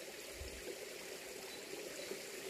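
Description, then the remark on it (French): A small stream runs steadily through a forest, its water babbling and trickling over small cascades in a continuous, gentle wash with no voices present. “et observer cette danse aquatique avec ce petit ruisseau qui court au milieu de cette forêt.”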